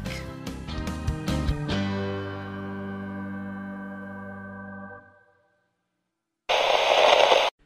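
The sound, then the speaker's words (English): A loud, hissing burst of radio static lasts about a second, coming after ringing musical tones fade out into a brief silence. “Channel KRT, cut static.”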